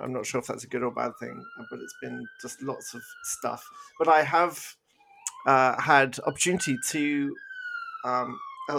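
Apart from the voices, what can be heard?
emergency vehicle siren outside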